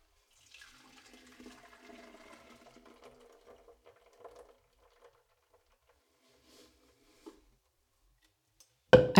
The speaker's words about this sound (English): Once I've blended the first batch of milk, I place the nut milk bag inside the container where I'll store the milk and pour the mixture inside.